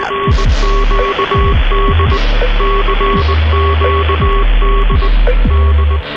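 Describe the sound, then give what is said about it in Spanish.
Morse code telegraph message sent from the basement of the Capitol in Washington to Baltimore, sounding as a steady run of short and long beeping tones, loud, over a low, throbbing electrical hum, with no voices. “En cuestión de segundos, su mensaje había viajado desde el sótano del Capitolio en la ciudad de Washington”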